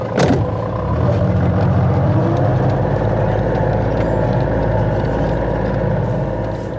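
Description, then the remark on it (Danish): A small off-road vehicle drives through Kravlund Mose, heading into a bog section where a car cannot go. Its engine is a steady, loud rumble with a rough mechanical rattle, starting with a brief sharp clank and continuing without any talking. “Og nu har han kørt øh, med med den lille terrængående, fordi øh, vi, nu skal vi ind igennem en, et moseparti, hvor det er svært at have bilen med”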